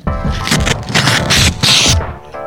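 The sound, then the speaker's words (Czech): A freshly sharpened knife slicing through a sheet of paper with notes on it, heard as a run of crisp, crackling rasps and scrapes in uneven bursts over about two seconds, fairly loud, with a faint voice at the edges. “Tak ještě jednou děkuju a rozloučím se tady, přeříznu nožem, který jsme nabrousil tenhle papír s poznámkami.”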